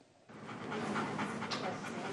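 Harvey, a war veteran's dog and constant companion, pants rapidly and steadily, a breathy, continuous rhythm that starts after a brief quiet moment and stays fairly loud throughout.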